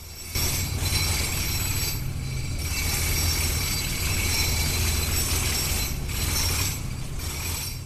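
Steady, loud factory machinery runs during a production process without pause, a low mechanical rumble under whirring, rattling clatter with a thin high-pitched whine on top. No one speaks.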